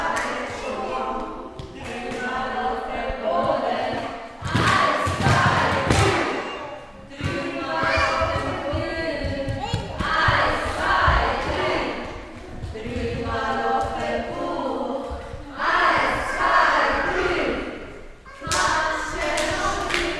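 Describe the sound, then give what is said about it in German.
A group of children and adults sing together after breakfast in the Tonhalle at the Minitreff, in a steady, continuous stretch, punctuated by a few loud claps or thumps that break in every few seconds. “Dort gibt es nach dem Frühstück auch ein Singen. Eine kleine Hörprobe gibt es jetzt.”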